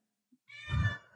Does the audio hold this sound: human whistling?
no